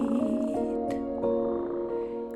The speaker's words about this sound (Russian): Песенку свою урчит.